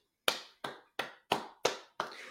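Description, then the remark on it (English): Six crisp hand claps in a slow, steady rhythm, fairly loud, from what sounds like a single person rather than a crowd, with no voices. “Round of applause.”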